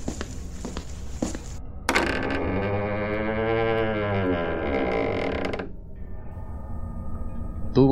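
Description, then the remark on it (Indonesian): The door of mystic doctor Misterio's residence creaks open by itself, slowly, in one long, wavering groan lasting a few seconds, preceded by faint rattling clicks and followed by a quiet, hollow tone. “Pintu kediaman membuka dengan sendirinya.”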